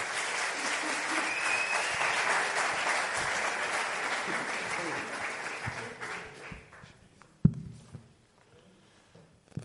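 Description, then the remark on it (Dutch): Sustained audience applause welcoming a guest speaker and a new translator, a dense wash of many hands clapping that holds steady for several seconds, then thins out and fades, leaving a few scattered thumps and shuffles. “Ja, en ehm, ik wil vragen of jullie Matthew, maar ook Tim, een geweldig applaus geven en ze welkom heten.”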